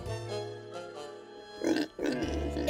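A pig grunts and oinks, starting with low drawn-out grunts and ending in a few louder, squealing oinks, with no talking.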